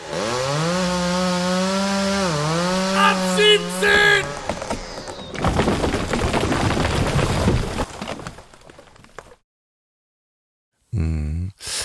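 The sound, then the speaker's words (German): A short separator jingle: a buzzing, engine-like whine revs and bends in pitch, then gives way to a harsh, rough sawing roar that cuts off abruptly into silence before talk resumes. “Aber erstmal hier ein Trenner.”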